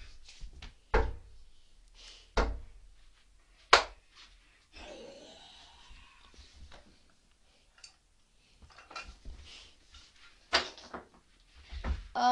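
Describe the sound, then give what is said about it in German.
A zombie bangs on a door, breaking it in, with loud, irregular thumps spaced a second or more apart and a scraping, rattling stretch in the middle, with no talking. “Er haut sogar Tür ein.”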